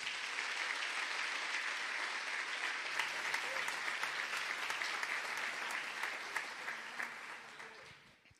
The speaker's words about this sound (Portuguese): E Jesus tem um plano na sua vida. Você pode dar um aplauso a Jesus por isso?